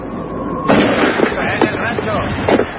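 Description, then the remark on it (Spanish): A loud sniper rifle shot, fired by a Russian sniper from a building, cracks suddenly after a faint steady hum, followed by a rough, rumbling tail with a few smaller bangs scattered through it. “Un francotirador ruso dispara desde un edificio.”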